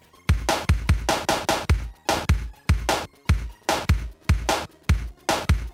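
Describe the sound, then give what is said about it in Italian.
A loud, steady loop of sampled drum hits from Sega Mega Drive game music, the PCM sample track played alone: punchy kicks and crisp snare-like cracks repeating in a driving rhythm, with no melody and no voices. “Soltanto i campioni PCM”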